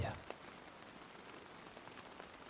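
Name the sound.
rain falling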